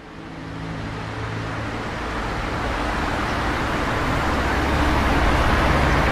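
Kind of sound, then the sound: vehicle, car traffic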